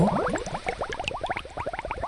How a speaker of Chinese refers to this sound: 阿寿说：“ 我们在煮石头汤。我们需要三块又圆又滑的石头。” 小女孩帮和尚们在院子里找石头，他们找到三个正好合适的石头，然后把它们放进水里煮。